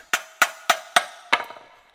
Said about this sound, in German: Ein, das ist dieser, dieser Mini-Amboss, auf dem man dann dieses Sensorblatt Stückle für Stückle praktisch so dann ausdengelt, also wieder ausdünnt und scharf macht.